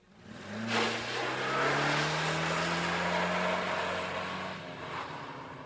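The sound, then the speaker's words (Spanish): A car engine turns over and catches, then revs up steadily as the vehicle pulls away, the rising engine tone loud throughout with no voices. “Luego puso en marcha el coche.”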